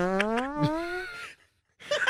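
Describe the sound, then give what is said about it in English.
Someone makes a drawn-out fart noise with their mouth: a buzzy, rising tone lasting about a second, close and fairly loud. A short pause follows, then a brief breathy burst. “okay, we don't need we don't need any more fart noises.”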